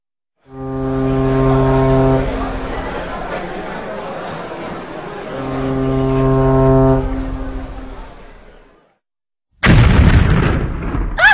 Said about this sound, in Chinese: 是日本人，他们的军舰在攻打吴淞炮台。